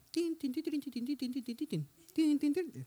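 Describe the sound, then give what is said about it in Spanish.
A voice imitates a cell phone ringtone with a quick run of sung, pitched notes, pauses briefly, then starts the melody again. It is moderately loud. “Estudiando y suena mi teléfono.”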